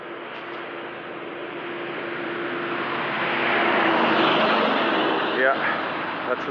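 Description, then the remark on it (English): Loud, continuous industrial roar from a fracking operation, a broad rushing noise with a steady low drone underneath, swelling slightly in the middle, with a couple of brief squeaks near the end. “That's the sound of fracking, kids.”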